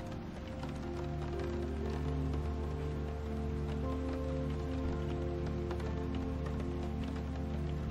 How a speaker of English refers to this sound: As your mind gets slightly lost in the relaxing sound of the rain at your window, thunder crawls across the unseen sky, trailing off and further away.